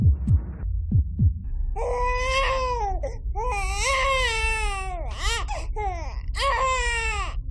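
A baby cries loudly in several long, wavering wails with brief gasps between them, following a few soft low thumps like a heartbeat at the start.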